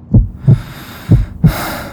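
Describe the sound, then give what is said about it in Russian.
A low, muffled heartbeat thuds twice in a steady lub-dub rhythm, four soft beats in all, with a faint airy hiss rising behind the last pair. “Единственный звук, который ты слышишь, это стук твоего сердца наполняющий каждую клетку твоего тела.”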